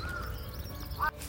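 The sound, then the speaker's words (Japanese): A crow gives a short, loud, harsh caw near the end, preceded by a fainter call. The calls come from outdoors on a humid, overcast rainy-season morning with light rain, against a steady low background hum with no talking. “カラスの鳴き声ってねほんと全てを消し去るぐらい大きいですよね”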